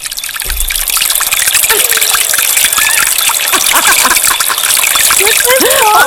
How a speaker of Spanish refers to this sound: Estaba buscando sonido de... ¿En una cascada?